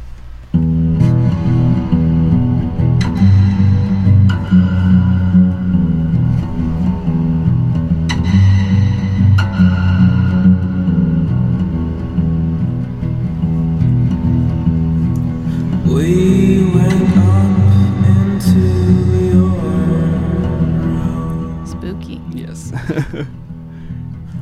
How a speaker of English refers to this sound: so much reverb also that was my like uh, I felt insecure so i just threw lots of reverb and echo on things